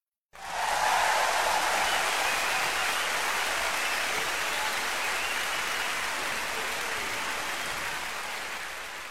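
An audience breaks into applause, a dense, steady wash of many hands clapping that starts abruptly, holds strong for several seconds and then eases off slightly, with no voices.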